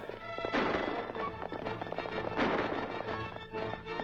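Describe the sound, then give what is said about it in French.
Rapid, pounding hooves of galloping horses in a chase on horseback, loud, churning continuously amid a dense, busy mix of action noise with two sharper surges. “Après, c'est vrai que l'épée, quand tu fais euh, une course-poursuite à cheval, c'est pas terrible.”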